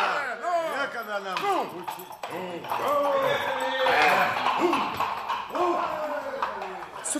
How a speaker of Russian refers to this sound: Ну, повернул коня и поехал домой. Вслед за ним потянулись и другие.